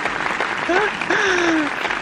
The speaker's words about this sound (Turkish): Evet oley, geliyor. Oley alkışlar süper harika.